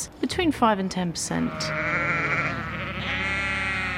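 sheep bleating

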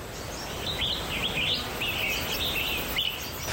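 birds chirping

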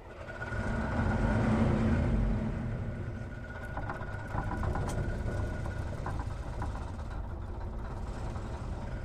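bus engine running

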